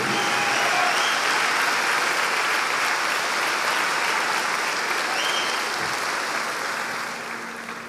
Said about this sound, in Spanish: Si tú quieres darle un aplauso al Señor, dáselo hoy.